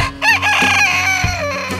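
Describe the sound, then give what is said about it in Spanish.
A rooster crows loudly, one long cock-a-doodle-doo with rising harmonic calls, over a low steady hum of background music. “Podría imaginarse a sí mismo como el jefe de las granjas alrededor del mundo, despertándolos a todos al amanecer con su famoso canto.”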